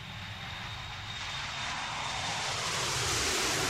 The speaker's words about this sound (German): Um Wirklichkeit über Amanda aus erster Hand herauszufinden, steige ich in ein Flugzeug.